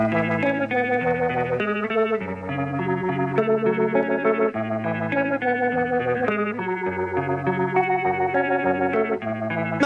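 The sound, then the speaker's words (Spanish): A rock band song, the 14th track of an album, plays steadily at full volume, with heavily effected, distorted guitars over a sustained bass line and a thick, layered chorus-like sound throughout. “Nos quedan eh, cuatro para picar, la 14 es medio un embole, no te voy a mentir.”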